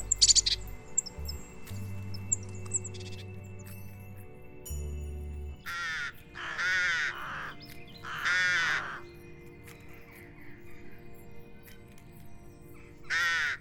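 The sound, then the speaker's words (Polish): Rooks give a few loud, harsh caws in irregular bursts, some calls doubling up, against a steady low background rumble and faint chirps. “Tak samo jest y, w przypadku chociażby gawronów.”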